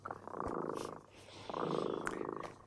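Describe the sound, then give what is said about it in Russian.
A cat purrs, a steady rumbling that swells through two long breaths with a short pause between them. No one speaks. “Слышите, наш кот Ремота запел свою песенку.”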